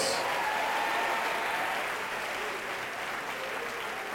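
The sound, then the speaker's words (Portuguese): An audience claps steadily for God, a dense wash of applause at an even level for several seconds before easing slightly toward the end. “Vamos aplaudir mais ao nosso Deus.”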